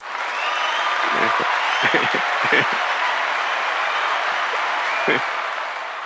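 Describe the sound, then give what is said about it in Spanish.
Steady applause from many people clapping at once as an 8 o'clock tribute, a dense continuous patter lasting several seconds, with a few sharper, louder claps standing out and faint voices mixed in. “Porque aquí todo el mundo a las 8 sale, sale a aplaudir a, pues a todos, ¿no?”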